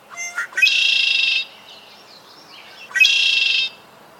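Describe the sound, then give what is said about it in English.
A red-winged blackbird sings twice, each song opening with short sharp notes before a loud, buzzy trill, clear, with a brief pause between the two songs and no talking. “a very common bird around here is a red winged blackbird.”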